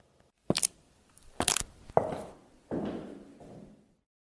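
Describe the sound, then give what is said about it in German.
A window door with two handles being pushed on the left and pulled on the right to shut it: several sharp wooden knocks and a latch clack, followed by a scraping, rustling slide as it settles closed. No voices. “Man drückt links und zieht rechts, um die Fenstertüre zu schließen.”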